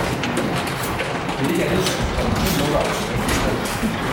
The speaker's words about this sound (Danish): jeg står i en kæmpe vareelevator